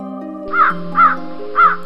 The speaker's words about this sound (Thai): ทันใดนั้นอีกาสามตัวก็บินตรงเข้ามาหา เกาะบนหัวเข่าเขา พร้อมกับบอกว่า